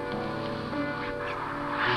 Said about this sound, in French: Les, les oiseaux sifflent pas, ils crient.